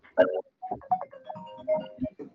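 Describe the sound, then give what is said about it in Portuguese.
A telephone rings with a short melodic ringtone, a run of quick electronic notes at varying pitches, fairly loud, with no talking over it. “Eu vou atender aqui o telefone, só um segundo, galera.”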